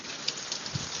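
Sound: rain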